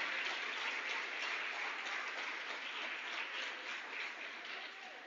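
A crowd applauds steadily for the Lord in the name of Jesus, dense overlapping claps at a sustained, fairly loud level that eases off slightly toward the end, with no voices standing out.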